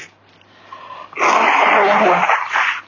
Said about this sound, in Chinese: 反正对于我来说，我还擤鼻涕啊。